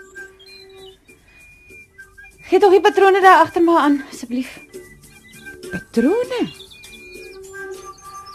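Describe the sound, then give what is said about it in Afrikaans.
Partridges call in short, shrill chirping bursts in the early morning, rising and falling in pitch, while a man speaks over them; a few fainter chirps follow near the end. “Daar skreeu die patryse af.”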